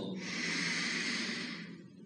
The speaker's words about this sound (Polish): Drugi głęboki oddech przez nos.